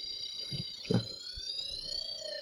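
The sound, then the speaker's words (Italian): A small digital optical theremin plays a thin, high electronic tone that hums steadily with slowly gliding pitch, buzzy and chiptune-like, like an 8-bit computer or 1980s video game, fairly quiet, with a brief soft knock of handling noise partway through. “Questo suona un po' particolare, un po' da... Da computer 8 bit. Esatto, da, da videogame anni 80.”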